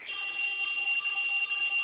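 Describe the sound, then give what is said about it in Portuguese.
A mobile phone ringing with a steady, shrill electronic tone that holds without a break for the whole moment, moderately loud, with no one speaking over it. “É o meu telefone, porra!”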